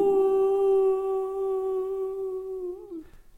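A single long, steady howl of a wounded wolf caught in a trap, likely voiced by a person imitating it, holding one clear tone for about three seconds before dipping and fading out, fairly loud.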